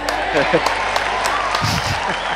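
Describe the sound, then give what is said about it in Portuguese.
A round of applause for a text about the film Animais Noturnos, a dense patter of clapping throughout, with voices briefly speaking and laughing over it. “Uma salva de palmas.”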